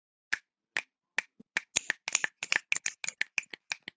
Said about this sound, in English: You can clap, but I can snap.